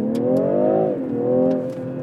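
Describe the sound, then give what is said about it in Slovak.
An Audi A4 TDI car engine revs hard, its droning pitch climbing as it accelerates, briefly dropping at a gear change, then pulling strongly again. No voices are heard. “Fú, ale dobre to zatlača tomu spolujazcovi, akože mozog do, do zadnej časti lebene.”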